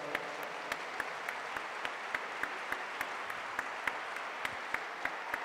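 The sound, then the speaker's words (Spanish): A church audience claps steadily to welcome first-time visitors, many hands blending into a dense wash of applause with sharper individual claps popping out in an irregular rhythm, moderately loud and without voices. “¿Por qué no les dan un fuerte aplauso?”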